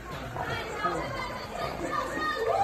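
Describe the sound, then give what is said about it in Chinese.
A large crowd of over a thousand people in a lecture venue in Taiwan cheering and clamoring, a dense, continuous wash of many voices with scattered higher shouts rising out of it, holding at a steady, fairly loud level throughout. “哦，你看大家，哦，肉也很很认真在欢呼，你看都是踩，哦，因为地上都是人，看到夸不夸张？”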